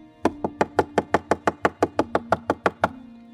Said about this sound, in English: arriving at Mary's home, Peter knocked at the outside door.